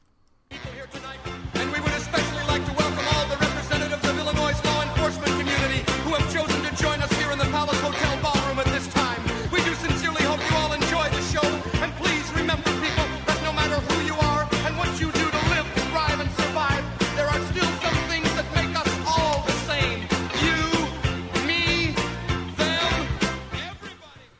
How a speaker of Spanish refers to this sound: la canción que estaban escuchando es …, cantada por o interpretada por …